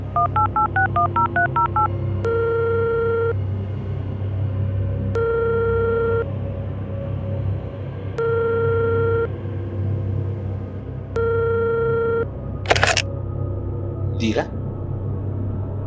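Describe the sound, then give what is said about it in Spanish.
A quick burst of telephone keypad tones dials a number, then a ringing tone repeats four times in steady, evenly spaced pulses over a low, constant rumble, as a caller phones a stranger late at night. “El momento en que mi vida ya no me pertenecía a mí, ni tampoco a esa mocosa, sino a la desconocida o desconocido que contestara el teléfono.”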